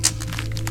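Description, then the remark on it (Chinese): Ice on a frozen pond in a mountain valley at night cracking under a right foot stepping onto it: a sharp, bright snap followed by a few quieter, brittle crackles spread over under a second, with a steady low hum beneath and no voices. “那是冰面破碎的声音，是冰层正在断裂的声音。”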